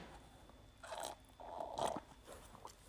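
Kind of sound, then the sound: food or drink, drinking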